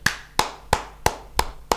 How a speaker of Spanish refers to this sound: ¿A quién aplaude?